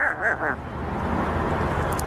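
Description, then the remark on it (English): A parrot's voice mimics a car starting: three quick, nasal cranking squawks followed by a steady, noisy engine-like rumble that holds for over a second. The sound is fairly loud. “Can you help me start the car?”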